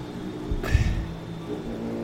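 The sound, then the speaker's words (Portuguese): A motorcycle engine swells briefly as it passes by, a quick rising whine and low rumble that fades within a second, leaving a steady low background hum. “Olha a moto. Acabou com a minha brisa.”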